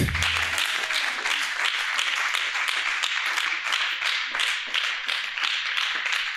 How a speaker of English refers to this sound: Give him the clapping, give him the praise. Give him the praise.